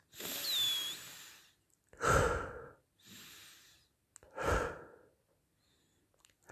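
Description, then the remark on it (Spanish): Slow, deep breaths drawn in and pushed out as a three-second breathing exercise, four long airy whooshes in a steady rhythm with brief pauses between, fairly loud, with no talking. “respiro profundamente, hagamos un ejercicio de respiración mm, de tres segundos, ¿vale?”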